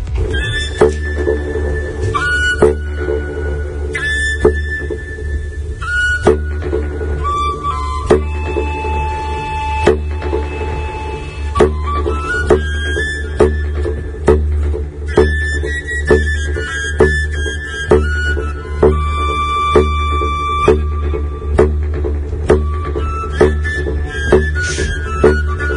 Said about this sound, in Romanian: deci o să auziți saxofonul, și fluierul și fiți atenți la ecoul din spațiul respectiv. Acum dați mai tare.